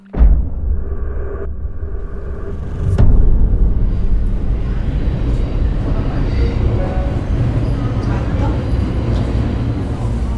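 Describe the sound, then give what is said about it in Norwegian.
A crowded, warm metro train rumbles steadily at a platform at quarter past four in the afternoon while passengers with bags over their shoulders murmur and shuffle out, with a sharp clack partway through and a continuous low background roar. “Og ut av den fulle, varme T-banevogna velter småstressa folk med veska over skuldra på vei mot ungene som venter i barnehagen.”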